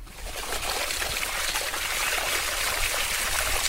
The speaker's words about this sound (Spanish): El agua.